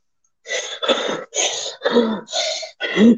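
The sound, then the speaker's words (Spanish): A voice imitates a film trailer character's heavy, labored breathing in a bathroom: six loud, raspy huffs in a steady in-and-out rhythm, some with a rough, throaty edge, and no talking. “Respirando bien fuerte en el baño como por un par de minutos y una escena el personaje de Jonah Hill le dice, tu respirar me desconcentra, me desconcentra ah.”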